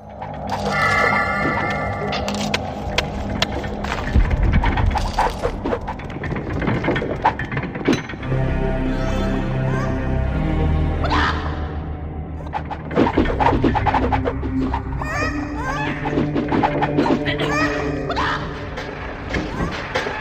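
A dense video game dungeon ambience heard room by room, from gold fields through a training room and chicken farms to a torture chamber and temple: steady tonal drones layered with clanks, wooden knocks, thuds and ratcheting mechanisms, busy and fairly loud throughout with no pauses.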